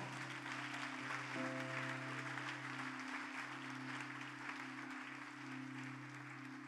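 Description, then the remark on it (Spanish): An audience applauds for the Lord, a dense wash of clapping that holds loud and even throughout, with a low sustained organ-like tone humming underneath. “Si usted lo cree, se lo da grande y fuerte al Señor.”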